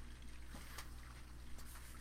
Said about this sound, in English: that's the hot water line running to the upstairs bathroom.